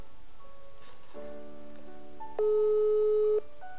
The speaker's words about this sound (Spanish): Voy a llamarlo en este momento a través de WhatsApp y vamos a charlar con él acerca de la vida del artista itinerante. A ver, Tuki, Tuki. Ahí está llamando.